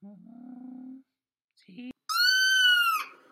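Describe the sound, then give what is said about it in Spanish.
A cat makes a low, rumbling purr-like sound, then after a short pause lets out one loud, high, drawn-out meow. “A ver, a ver, ven aquí gato. Déjame mirarte.”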